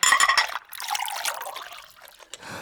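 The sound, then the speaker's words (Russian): Tea pours into a cup in a steady, bubbling trickle, with a ringing, rising tone as the cup fills, then tapers into softer dribbles and a final drip. “я тебе чайку еще налью”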